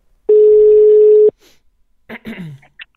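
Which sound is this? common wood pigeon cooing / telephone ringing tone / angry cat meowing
telephone ringing tone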